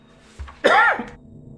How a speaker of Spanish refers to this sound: Perdón, este. Se me fue un poquito la tos, pero bueno, es tos normal.